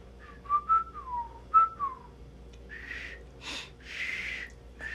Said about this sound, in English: I actually learned by whistling oh, inwards. Oh. Yeah. I kind of had something going there. I learned by li- uh, whistling inwards.